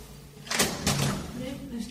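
A front door is opened by a small woman in her 70s, with two quick clunks of the latch and handle, followed by a faint creak and some low background murmur.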